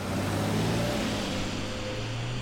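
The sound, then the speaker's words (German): A steady synthetic electric-car engine sound, made to resemble a combustion engine, with low, sustained tonal drones and a faint higher whine, holding constant throughout without speech. “die dem erlernten und erwarteten Sound eines Verbrennungsmotors ähneln, aber gleichzeitig anders, neu, zukunftsweisend sind.”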